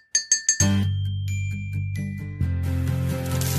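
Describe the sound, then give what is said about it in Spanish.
A short bright chime jingle plays as a mobile phone ringtone: three quick glassy tinkling notes, then a fuller sustained melody that swells midway, loud, with no voices. “Por ejemplo, que si tú estás en un sitio y escuchas de repente un móvil con este sonido, no, con este no, vamos a ponerte este.”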